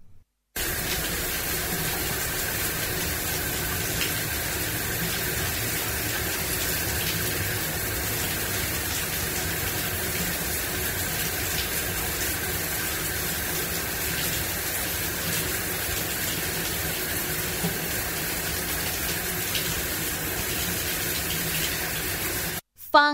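A shower runs steadily, a dense, even hiss of spraying water that holds at the same level for over twenty seconds with no voices, stopping abruptly at the end.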